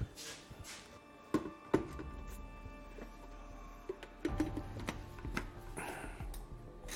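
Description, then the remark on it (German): A blender grinds bread into breadcrumbs for coating fish, its steady motor whir running throughout with irregular knocks and rattles as pieces tumble against the jar, moderately loud. “Dann Mixer.”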